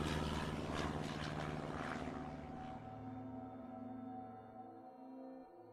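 A propeller airplane's engine roars loudly with a steady droning hum, then gradually recedes as the chartered aircraft, piloted by Roger Peterson with three passengers, takes off southbound into a freezing cold night at 1 a.m. on February 3, 1959.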